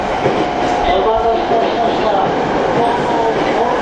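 A TWR 70-000 series commuter train on a Saikyo Line rapid service between Shin-Kiba and Akabane, running on rails: a steady, loud rumbling roar that holds constant throughout, with a faint tonal whine threaded through the low, continuous noise.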